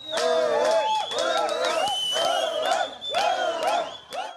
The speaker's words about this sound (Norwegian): Voldsom jubel om bord idet de får vite at skipet får lov til å klappe til kai på Malta. Unge gutter hopper og jubler av glede.